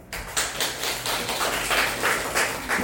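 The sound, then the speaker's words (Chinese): A small group claps steadily for about three seconds, the sharp slaps falling into a fairly regular rhythm with a dense, crackling spread of hand claps underneath and no voices. The clapping encourages a participant called up to share her reason for earning money. “掌声鼓励一下。”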